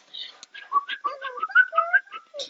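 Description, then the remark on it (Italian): A voice imitates a little bird's whistle: a quick run of chirpy whistled notes that slide up and down in pitch, lasting a couple of seconds with no talking. “L'uccellina?”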